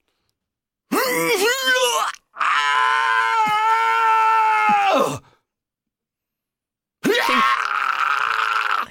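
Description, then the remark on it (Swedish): A man's voice imitates the pained, straining groans of a man in a men's toilet: three loud, drawn-out vocal bursts with short silences between them, the middle one held longest and the last trailing off abruptly. “Du står och skriker rätt ut när du står och kissar.”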